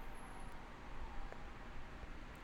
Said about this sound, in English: well, there's cars everywhere, like yeah. on both sides of my house and you could hear them outside the window because it's super hot in this room, and I got to keep the window open